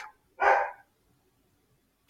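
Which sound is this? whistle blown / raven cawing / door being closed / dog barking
dog barking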